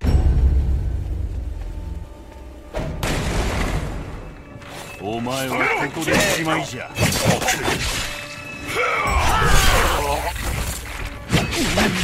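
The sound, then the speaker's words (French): Game audio full of combat effects: sharp shattering crashes and heavy impacts burst out over a rumbling low backdrop, with strained grunts and cries mixed in and a voice exclaiming briefly. “Je vais peut-être faire écouter la, la bande son.”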